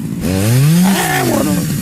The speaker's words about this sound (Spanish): Llegó al cantón, güey, con la motosierra. ¿Lo, lo, mató al vato? ¡No! A la puerta. dale, dale, motosierra.